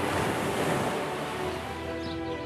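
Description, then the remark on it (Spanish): A steady, rushing wash of ocean surf on a kilometres-long beach in Huelva fills the scene, breaking waves rolling continuously with no pauses, while soft tonal music begins to rise faintly underneath toward the end. “Cierra los ojos e imagina el agua salada rozando tu piel en una playa kilométrica.”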